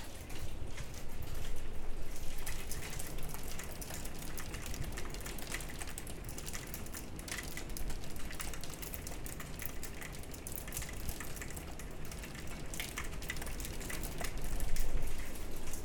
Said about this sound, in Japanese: 冒頭の音はですねというか今日のバックグラウンドの音は雨です雨というかあの今家のまあ of course I'm in, in my house 家にはいるんですが、まあ、そこに打ちつけてくる雨というのをバックグラウンドに、